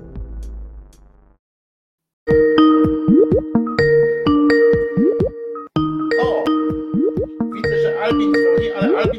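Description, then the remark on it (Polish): A melodic phone ringtone chimes loudly, a bright plinking tune that plays through, then starts over and repeats, following a brief low tone and a moment of silence; an incoming call ringing a radio host's own phone instead of the station line. “dzwoni, dzwonisz do mnie, nie wiem czy będziecie słychać, przepraszam, bo dzwonisz do mnie zamiast do, do, do radia.”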